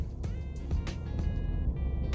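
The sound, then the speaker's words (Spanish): Steady low rumble of road noise inside a moving car, continuous, with a few brief ticks and bumps over the drone and no one talking. “Ya sabéis que lo primero que hay que hacer cuando vas en coche es conducir y luego pues tener tus cositas y grabar en el coche tampoco es fácil”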